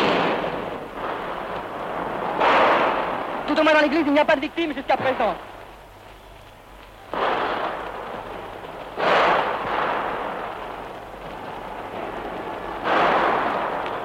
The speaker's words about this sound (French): Les coups de feu, les coups de feu toujours, les coups de feu crépitent toujours.